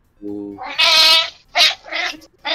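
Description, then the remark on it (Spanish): A person imitates the Wookiee roar of Chewbacca: a low groan swells into a loud, raspy, wavering howl, followed by two shorter growling bursts and the start of a third. “Se transformó en Chubaca.”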